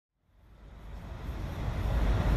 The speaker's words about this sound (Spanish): Este es el sonido de los autobuses aparcados al lado del mall.